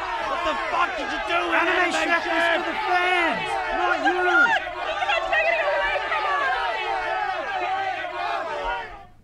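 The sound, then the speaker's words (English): A loud crowd of a show's fans gathered outside the AMC Plus studios clamors together, demanding answers about the state of the show: many overlapping voices shouting and chattering excitedly in a continuous babble with rising yells, no single voice standing out. “In fact, they've gathered outside the AMC Plus studios to demand answers as to the state of the show.”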